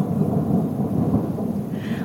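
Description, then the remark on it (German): Low, continuous thunder rumbles through the background of a storm over a wide open plain with umbrella acacias, with a steady wash of rain-like noise; the rumbling swells slightly midway and stays soft rather than sharp. “Es gewittert.”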